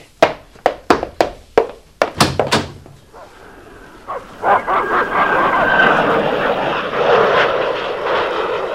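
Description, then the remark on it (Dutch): A quick series of sharp bangs opens, then an airplane's engine roar swells in overhead, a loud, sustained droning rush with a faint whine that lingers to the end. “Er zit een vliegtuig in de lucht.”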